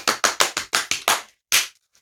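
A short burst of hand clapping in applause for a singer's high notes: seven quick, sharp claps in a steady rhythm, a brief pause, then one final clap. Crisp and fairly loud, with no talking.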